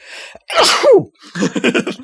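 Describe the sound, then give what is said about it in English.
A single loud sneeze with a sharp breathy burst, followed by a short stretch of choppy voiced sounds, like someone talking or murmuring right after. “Exactly you, sneeze.”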